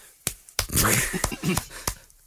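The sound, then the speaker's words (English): Brisk rubbing of a man's hands as if washing them, with a dry, hissing friction, punctuated by several sharp slaps as the palms meet and brush off, lasting about two seconds. “that, that's the sound of a man washing his hands, I think.”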